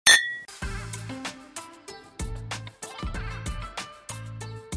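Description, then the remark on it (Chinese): Glasses clink together once in a toast, leaving a bright ringing tone, followed by a chiming melodic tune with steady bass notes. No one speaks. “为你干杯，为你干杯。”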